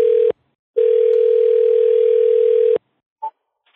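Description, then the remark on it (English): A phone line's ringback tone while calling a number back: a steady, loud, low electronic tone that cuts off briefly, then sounds for about two seconds, followed by silence and a short, higher blip. “Can I call this number back? Hey, it's ringing.”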